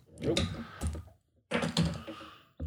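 A bottle of Polder IPA, an unfiltered, bottle-conditioned beer still undergoing secondary fermentation, being opened, with a sharp fizzing hiss of escaping gas alongside some clunks and handling noises, then a brief pause and another burst.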